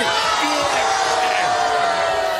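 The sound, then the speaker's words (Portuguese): A studio audience at a debate show erupts in loud, sustained cheering and shouting, a dense, steady roar of many voices that holds at full strength for the whole stretch. “Por favor, pediria que a plateia não se manifestasse.”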